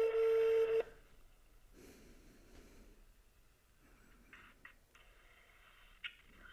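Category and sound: signal or alarm, telephone dialing tones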